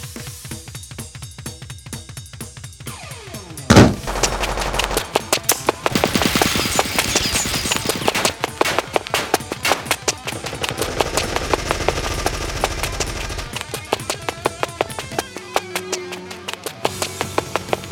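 Rapid bursts of automatic gunfire rattle almost nonstop after a sharp opening blast, loud, with dense overlapping shots and a low rumble beneath. No one speaks.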